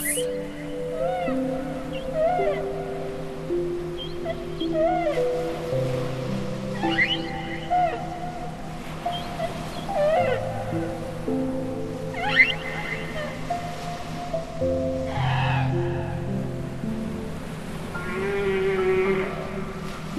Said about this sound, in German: Du wirst innerlich ganz ruhig, so angenehm und beruhigend der Gesang des Buckelwals.